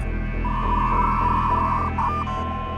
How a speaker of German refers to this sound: Ein altes Analogmodem. Wenn ich das höre, fühle ich mich sofort zurückversetzt in meine Jugend, Erinnerungen an Freunde, Musik, Schönes und auch Schreckliches kommen wieder zum Vorschein.